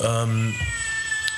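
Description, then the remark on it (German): A single drawn-out cat meow, loud, lasting about half a second, followed by a brief hesitant murmur from a person speaking. “Oh, das ist die Katze aus Teil 1.”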